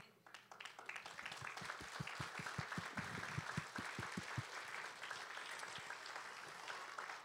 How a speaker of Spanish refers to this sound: Eso meritaba un aplauso para el Señor.